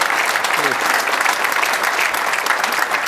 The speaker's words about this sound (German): ja, gerne der Applaus